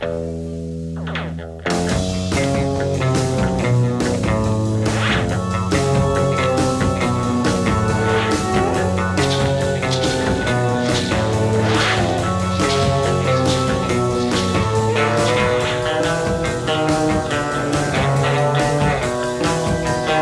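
After a brief quiet moment, a loud, full-band rock song bursts in and plays on steadily, carried by a repeating, descending electric guitar riff with a gritty, effects-laden tone.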